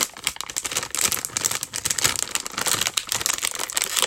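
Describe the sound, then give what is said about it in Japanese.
A plastic bag of Seven-Eleven edamame chips crinkles and crackles as it's twisted and pulled at without opening, a steady run of sharp, irregular rustles lasting several seconds with no one speaking. “開かない。”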